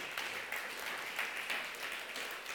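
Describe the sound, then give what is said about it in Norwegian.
A crowd applauds steadily, many hands clapping together in a dense, sustained patter without pause, fairly loud and even throughout, for a guest as he walks up. “Ja, han kan få en applaus på vei opp, det syns jeg.”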